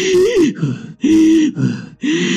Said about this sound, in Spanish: Y vamos a ver entonces también que empezamos a respirar más rápido y más fuerte.